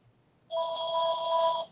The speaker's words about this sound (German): Das ist nicht mein Handy. Ach so. Das ist aus Telefon, glaube ich. Ja. Warten wir mal einen Augenblick. Nein, nein, nein, geh, geh, mal bitte ran, wir wollen alle mithören.